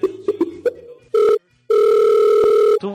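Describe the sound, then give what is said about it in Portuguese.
An electronic phone ring tone on a recorded phone call: a short steady tone, a brief gap, then a longer one, loud and clear, after a few muffled clicks and noises. “eu atendo, cara.”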